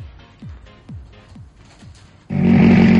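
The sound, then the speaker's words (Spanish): A rally car engine snarls through a quick series of falling revs, then bursts into a loud, sustained full-throttle roar, with no voices. “Un amante de los rallies sabe reconocer el ruido de un buen motor.”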